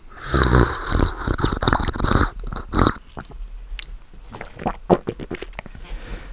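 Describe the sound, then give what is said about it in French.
A loud run of wet gulping and swallowing noises made with the mouth, followed by softer scattered clicks and smacks, with no talking. “Veux-tu faire un bruit de déglutition Eh bien écoute, avec volontiers.”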